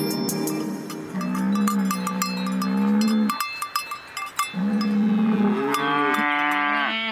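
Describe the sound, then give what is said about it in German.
A cow moos loudly in two long, low calls, the second rising into a strained bellow, with a bright metallic clanking like cowbells throughout and no one speaking. “Ist das nicht ein wunderschönes Geräusch? Ich meine, der liebe Gott oder der Urknall oder woran auch immer Sie glauben, hat im Tierreich so schöne Stimmen verteilt.”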